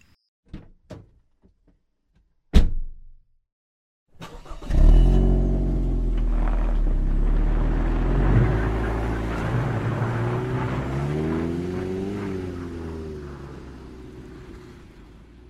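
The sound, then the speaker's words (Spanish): A few light clicks and a single heavy door slam, then a police patrol car's engine starts with a low rumble and revs steadily as it drives off to take people to the hospital, with no voices. “Espere, espere, espere, voy a sacar la patrulla y las voy a llevar al hospital, véngase conmigo rápido.”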